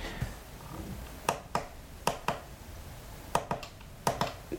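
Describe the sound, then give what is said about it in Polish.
Navigation keys on the left and right sides at the front of a braille display, not the thumb keys, are pressed gently, giving about nine short, crisp clicks, mostly in quick pairs, over a faint steady background hiss with no talking. “Delikatnie ależ wciskam oczywi- klawisz.”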